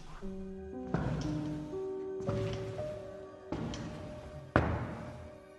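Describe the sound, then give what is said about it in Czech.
Slow, heavy footsteps thud across a floor in a house, four deliberate steps spaced evenly apart, approaching, heard over a low, sustained droning tone. “Kroky ve mně přesto vyvolaly zděšený strach.”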